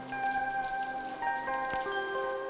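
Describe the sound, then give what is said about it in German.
Steady raindrops patter and drip on roof tiles and into a gutter, with scattered individual plinks over a soft background of sustained, gentle musical tones; no one speaks. “Aus seinem Giebelfenster beobachtete es, wie die Regentropfen auf den rostbraunen Wellen der Ziegel Fangen spielten und glucksend in die Dachrinne sprangen.”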